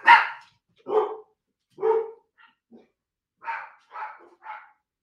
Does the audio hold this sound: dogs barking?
yes